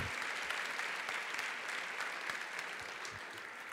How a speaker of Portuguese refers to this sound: Dá uma salva de palmas aí para Jesus.